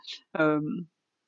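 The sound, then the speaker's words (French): A single dog bark rings out in the background, a drawn-out, tonal yelp lasting about half a second, preceded by a brief soft rustle, with silence after and no one talking. “Bon, le bruit en arrière-fond, c'est un chien qui aboie.”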